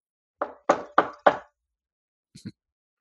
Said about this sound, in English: sparkle hears a knock on her door.